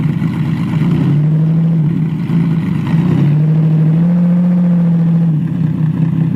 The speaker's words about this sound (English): I'm hoping that this comes out right. We tested it. It seemed to be working, but if it didn't, no big deal. This is what the car sounds like.